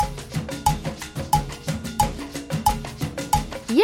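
A steady musical beat pulses evenly at a moderate tempo, with regular percussive hits falling in groups of four over a sustained backing. Music only, no voices.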